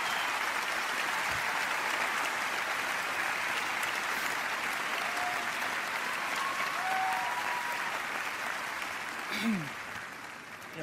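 Sustained audience applause, a dense steady wash of clapping that holds loud throughout, with a few faint whistles or cheers surfacing briefly. The audience warmly welcomes a man as he goes up on stage to receive an award for That Dragon Cancer. The applause begins to ease near the end.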